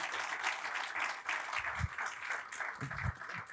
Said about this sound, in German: Wir wollen auch alle begrüßen, noch einmal, die uns online zuschauen, bitte. Lass uns die mit einem herzlichen Applaus begrüßen heute Morgen.